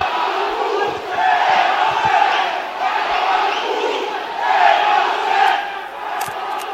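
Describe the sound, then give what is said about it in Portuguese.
A large stadium crowd of football fans at a Londrina versus Rio Branco match roars in sustained, angry waves as police enter the field. The mass of voices swells and eases twice over several seconds, loud and continuous, with no single speaker standing out. “A polícia está entrando em campo, a torcida está revoltada.”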